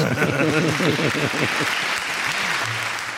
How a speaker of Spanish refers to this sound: Un aplauso para este oyente.